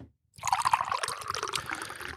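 Water pours steadily into a mug for about two seconds, a close, continuous splashing trickle with a faintly rising pitch as the vessel fills. No one speaks.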